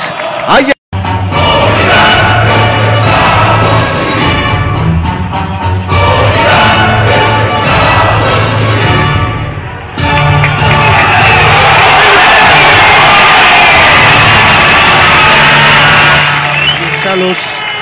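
A large stadium crowd of home fans in the north and south curves and the general stand roars and cheers continuously as the team is welcomed at the Copa Tigre trophy celebration, a dense wall of shouting and whoops that swells louder in the second half, with no pauses in the din.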